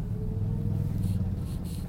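A steady, low engine rumble fills a car interior, a continuous deep drone with a faint tonal hum and occasional soft hissy bursts on top, no voices.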